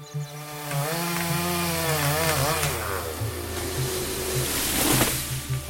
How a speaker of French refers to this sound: il annonce à ses employés qu'il ne veut plus voir ce gigantesque sapin qui lui gâche la vue. Il faut le couper, à la tronçonneuse, puis à la pioche pour les racines.